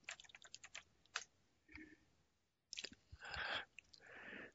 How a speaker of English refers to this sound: Uh, turkey, um, well, here, wait with me here, and I'll just type in map of Turkey, and we can go from there.